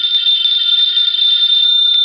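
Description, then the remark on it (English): A telephone rings with a loud, steady, high-pitched electric trill that holds unbroken for about two seconds, with no voices over it. “answer the phone, Archie? No, you answer it.”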